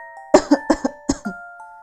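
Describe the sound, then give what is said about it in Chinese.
Hard, forceful coughing from a child with a very bad cold who is wearing a face mask: about six harsh, raspy coughs in two quick bursts, loud and unrelenting, with a faint steady electronic tone humming underneath and no talking. “我拼命的咳嗽。”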